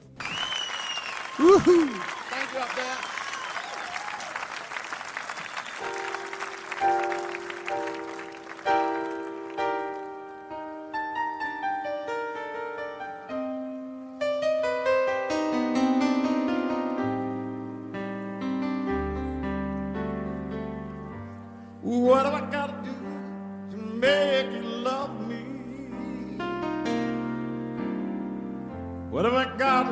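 A live concert recording from the 2019 Light Up Colosseo performance in Rome opens with crowd cheering and applause, then a slow piano-led song begins, its sustained chords and melody ringing out clearly with the crowd still faintly audible.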